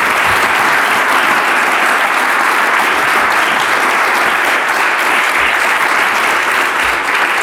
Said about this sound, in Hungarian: köszönöm szépen a részvételteket a beszélgetésben, szeretnék kérni egy nagy tapsot a résztvevőknek.